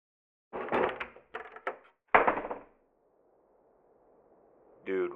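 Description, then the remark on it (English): A trap door in the floor is wrenched open: a run of loud wooden thuds and scraping clunks, then a low fading rumble, with a brief voice at the end. “Hey, I'm gonna see if I can get it open.”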